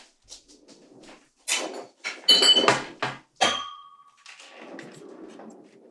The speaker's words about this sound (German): Da äh, raschelt im Karton.